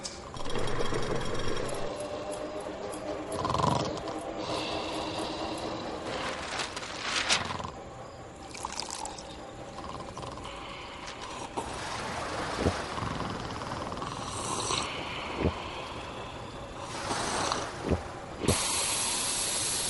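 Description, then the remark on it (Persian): An electric hair clipper, used to trim a man's face, buzzes steadily and continuously for the whole stretch, a raspy mechanical drone punctuated by occasional sharper crackling bursts. No one speaks. “آقا اومدن صورتشون رو ماشین کنن سیبیلتون هم میزنی؟”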